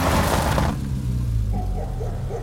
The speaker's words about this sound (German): Tom trat unwillig auf die Bremse und wir kamen in einer Staubwolke abrupt unter Wilsons Schild zum Stehen.